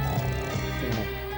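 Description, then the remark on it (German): A voice imitates an old man snoring with a low, rumbling drone that holds steady for a moment, fairly loud, with no words spoken. “Opa macht Schnarch.”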